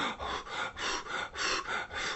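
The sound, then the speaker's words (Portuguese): A voice imitates the fast, heavy panting of a rabbit and Piauí lying exhausted on the floor of a shed after running, about six quick breathy huffs in a steady rhythm, fairly loud, with no other sounds around it. “Aí, depois do banho, de se vestir, ela foi até o galpão e encontrou o coelho e o Piauí deitados no chão, com a respiração.”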